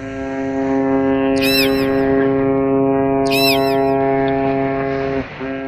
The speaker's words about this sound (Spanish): El batir de las hélices y el golpe del agua contra el casco de un barco causan un retumbar de entre 5 y 500 Hz.